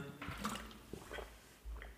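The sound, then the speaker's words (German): Someone takes a quick sip of water, with soft wet slurping and a small swallow, followed by a quiet breath; no one speaks. “Ich nehme jetzt nur kurz einen Schluck Wasser.”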